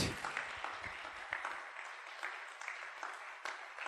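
An audience claps steadily throughout as a man comes onto the stage, a dense wash of many hands with no pauses, with some low rumble and thumping underneath during the first second and a half.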